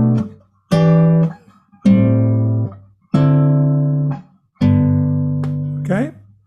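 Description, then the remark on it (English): Five guitar chords strummed one after another at a steady pace, each ringing for about a second before the next, moving through a three-six-two-five-one progression in the key of G, each chord voiced with a tenth and a minor seventh, played clear with no voices. “Um, for example, if I'm in G, okay, I'm in G, and I want to do three, six, two, five, one. Those are chords.”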